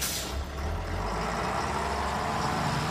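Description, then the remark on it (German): A bus's heavy engine rumbles steadily in Bremen at night, with a brief hiss at the start like air brakes releasing as the bus pulls away. No one speaks. “da ist Rösner schon wieder im Bus und der Bus setzt sich in Bewegung”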